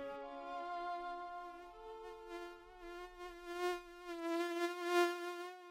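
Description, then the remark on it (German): A mosquito buzzes continuously, its thin high whine wavering slightly in pitch and swelling louder toward the end. No one speaks. “Was surrt denn da? Die Plage mit der Mücke.”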